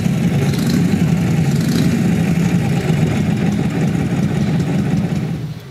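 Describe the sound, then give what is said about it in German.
A Harley-Davidson motorcycle knucklehead engine (made 1936 to 1947) runs steadily at idle at the Harley-Davidson Museum, a loud, low, uneven chugging rumble with a throbbing, loping beat that holds throughout and eases slightly at the end. No one speaks. “Made from 1936 to 1947, this is the knucklehead engine.”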